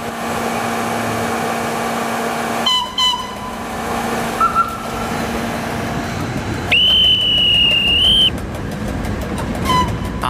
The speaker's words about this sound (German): Ein paar Minuten geht unser Aufenthalt, bis der Gegenzug eintrifft. Dann geht es weiter.